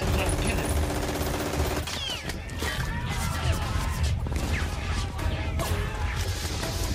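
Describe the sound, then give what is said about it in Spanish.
Dense battle sound effects evoking the Normandy landings: rapid machine-gun bursts and sharp grenade explosions blasting holes in the sand crowd together over a steady low rumble, continuous and loud throughout, with whistling high tones threading through the din. “Bueno, tenemos las ametralladoras tumbando, tenemos las granadas abriendo boquetes en la arena.”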